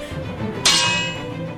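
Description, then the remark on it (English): A single sharp metallic clang of swords clashing, bright and loud, with a shimmering high ring that slowly fades over a low, quiet background rumble. No one speaks. “He drew his sword and went to run to their rescue, but Drake stepped in front of him and swung his sword.”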